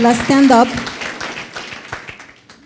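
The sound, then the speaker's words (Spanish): An audience breaks into applause: a voice rings out briefly at the start, then many scattered hand claps patter on at moderate loudness, gradually thinning out. “Pero déle ese fuerte aplauso, por favor.”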